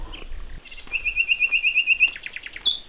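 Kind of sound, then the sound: bird, birds chirping outdoors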